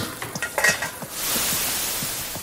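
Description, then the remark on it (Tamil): Metal utensils clink and scrape in a pan with quick stirring strokes, then a loud, steady sizzle of frying food takes over and continues to the end. “சமைப்போம் வேலைக்கு போக டிஃபன் பாக்ஸ் எடுப்போம்”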